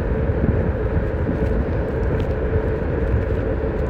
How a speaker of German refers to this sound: Ich weiß nicht, ob man den Wind hört, aber ich habe gerade eine super Abfahrt.